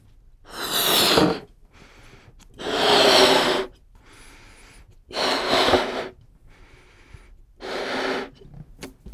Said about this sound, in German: Ich habe einen Luftballon mitgebracht und den würde ich jetzt mal aufpusten und dann platzen lassen. Das klingt nämlich sehr lustig hier im Raum, wenn man Luftballon platzen lässt. Ich puste ihn einfach mal auf.